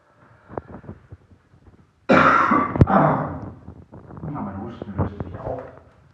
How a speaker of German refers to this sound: Ich bin ja nicht wirklich krank, ich habe nur leichten Husten. Das ist ja nichts Schlimmes, aber es ist halt einfach lästig, wenn man sprechen will und dann muss man plötzlich husten.